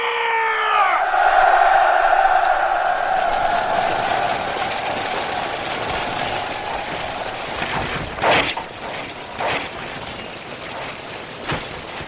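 A large crowd of soldiers roars in sustained, overlapping battle cries as they charge out of the fortress gates at Yeongam against Japanese pirates on the Jeolla coast; the cries swell loudly at first and then hold steady, with several sharp crashing bursts punctuating the din toward the end.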